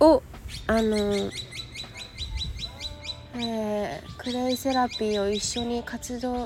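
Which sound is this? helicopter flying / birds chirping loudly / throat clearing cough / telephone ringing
birds chirping loudly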